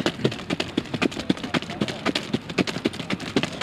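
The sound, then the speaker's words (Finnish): A trotting horse pulling a light racing cart (sulky), its hooves striking in a quick, steady clip-clop rhythm, with a continuous rushing noise of movement underneath. “Mistä sä näet, kun sä oot täällä kärryllä tai tunnet sen, että onko se hevonen hyvässä kunnossa vai ei?”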